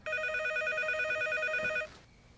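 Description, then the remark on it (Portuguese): A telephone rings with a steady, rapid electronic trill, loud, holding for nearly two seconds before cutting off into quiet background noise. No one speaks. The call is from the answerer's mother. “telefone! Desliguem a música! Todos parados!”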